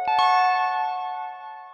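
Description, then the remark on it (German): A doorbell chime sounds two quick strikes as someone arrives to pick up a guest, then rings on in a sustained, clear tone that slowly fades. It is heard alone, with no voices. “Und bis in diesem Moment klingelt es und du wirst abgeholt und zum nächsten Termin gebracht.”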